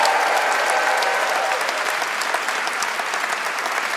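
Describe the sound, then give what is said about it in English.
Sustained applause from a live audience for the evening's guests at a live Freakonomics Radio show, a dense, steady wash of many hands clapping at even loudness throughout, with no voices rising above it. “And uh, could we please have one more round of applause for all our guests tonight?”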